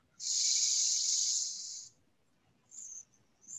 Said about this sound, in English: Six, four, two, relax do that again. Take a deep inhale, breathe in.